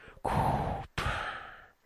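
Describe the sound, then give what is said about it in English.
A voice imitates Darth Vader's mechanical respirator breathing: two long, raspy, hissing breaths, one drawn in and one pushed out, fairly loud, with no talking. “You could hear the Darth Vader in the background, and it was so funny.”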